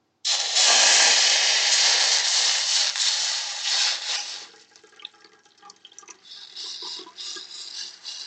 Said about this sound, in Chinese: 好，我们就把我们的锅子放回炉上，然后呢，我们加入我们的凉开水。然后加入凉开水的瞬间会有声音，别怕哦。